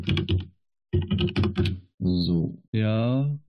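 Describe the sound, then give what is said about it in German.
Quick bursts of fairly loud computer keyboard typing clatter in two short runs as someone looks something up. A person then makes drawn-out voiced sounds, like humming or a laugh. “Warte, ich schau mal kurz, kein Moment. Ja, ich habe viele Yamaha-Geräte. Man muss auch richtig schreiben hier.”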